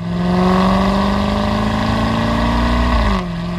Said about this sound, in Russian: ну там, когда, когда разгоняешь на этом электро, электромобиле, э, там какие-то звуки идут, там, там ну вот, которые что тоже... Человек почувствовал, да, да, да, что это не просто электромобиль какой-то, ну, да.